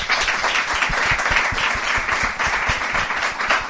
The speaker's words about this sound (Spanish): Muchas gracias. Un aplauso.